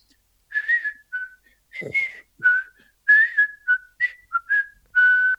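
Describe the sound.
Someone whistles a short melody, a run of clear, bright notes with brief pauses between phrases, ending on a longer held tone.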